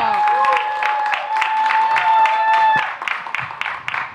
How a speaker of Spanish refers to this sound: Podríamos decir mucho más, pero ahora le toca a ella nos visita esta noche. Y fuerte el aplauso,